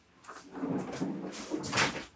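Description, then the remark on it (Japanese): A door that had been left open while rice was cooking being shut, heard as a short run of soft knocks and rustling scrapes over about two seconds, ending in a slightly louder clack. No one speaks. “いやなんか扉が開いててあの今ご飯炊いてるんですけど、ご飯の PP が入らんかなと思って 締めに行ったらギリギリ間に合わなかった”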